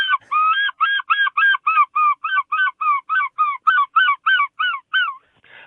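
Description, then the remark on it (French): A voice imitates a herring gull's laughing call: a rapid, steady series of about eighteen loud, nasal yelping notes, alone, lasting around five seconds. “Alors ça, c'est le goéland argenté.”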